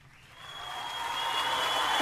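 A dense wash of applause for a returning guest on a program swells steadily louder over two seconds, with a thin sustained tone running underneath and a quick downward swoop at the very end; no one speaks.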